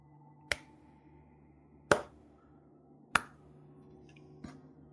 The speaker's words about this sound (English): Is it clapping or is that walking or is that? Uh, you, you, hear you hear clapping.